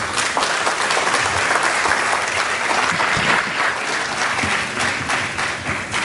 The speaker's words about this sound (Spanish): ¿Quiénes están acá por primera vez? Levanten la mano. Bienvenidos. Vamos a regalarles un fuerte aplauso.